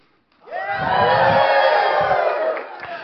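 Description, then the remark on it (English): An audience erupts in loud shouting and cheering, many voices rising together into a sustained roar that swells quickly and holds for a few seconds before easing slightly. “Shouting when they're supposed to be shouting.”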